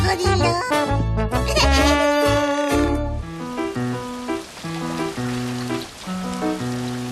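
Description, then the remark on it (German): Steady rain hisses beneath a gentle, plucked musical melody in the Sandmännchen children's story 'Rita und das Krokodil', starting after a few seconds of music alone and continuing evenly to the end, with no voices. “Es regnet.”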